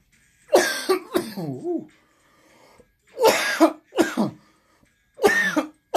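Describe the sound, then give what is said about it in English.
A person coughs several times in harsh bursts, with a raspy throat-clearing sound between them and brief quiet gaps; no talking. “I can't stop coughing.”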